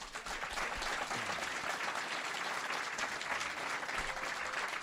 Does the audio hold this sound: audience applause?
yes